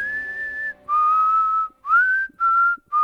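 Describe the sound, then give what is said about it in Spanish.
Someone lying back and playing with twigs whistles a short melody: a long held note, then several smooth, clear notes at shifting pitches with brief pauses between phrases, with no talking. “El más grande estaba recostado, jugando con unas ramitas y silbando una canción preciosa.”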